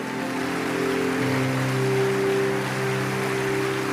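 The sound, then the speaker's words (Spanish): Steady, dense applause from a crowd applauding the King of Kings, Jesus, fills a few seconds without letting up, a loud hiss of clapping over sustained low musical tones. No one speaks. “que se escuche ese aplauso maravilloso, gente.”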